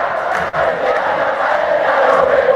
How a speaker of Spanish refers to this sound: No te escucho porque está muy, muy, muy fuerte la, hinchada detrás. Y porque la gente, viste, esto es fuerte, mira, esto es fuerte, escucha.